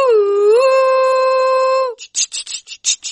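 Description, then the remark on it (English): A loud train whistle blows one long, steady note for about two seconds, rising slightly in pitch, followed by a run of rhythmic chuffing bursts like a steam engine pulling away; the whistle of the Arts Express show at the 3CR radio station, 855 AM. “Oh, Arts Express is blowing its whistle at the 3CR station.”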